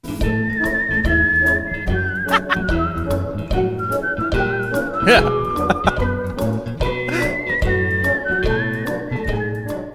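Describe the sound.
Lively orchestral music from the film Ratatouille with a bright whistled melody gliding above dense, steady accompaniment, full and loud throughout, while people talk briefly over it.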